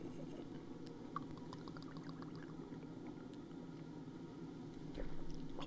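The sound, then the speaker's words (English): A faint, steady trickle of a shot being poured runs throughout, with a few small clicks and a soft bump near the end; no one speaks. “we're going to do this shot for uh, good old Ojdik”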